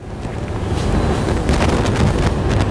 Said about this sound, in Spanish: Hoy les mando la postal sonora desde una trinchera.